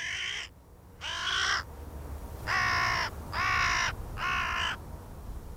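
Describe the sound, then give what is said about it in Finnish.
A male hooded crow gives five harsh, raspy, gurgling caws in a loose series as a courtship display, each about half a second long, loud over a low rumbling background. “Mitä ihanimmat pään ja vartalon taivutukset sekä siipien ja pyrstön levittelyt yhdessä autuaallisten korisevien ja kärisevien äänten kanssa. Siinä on varisherran rakkauden tunnustus.”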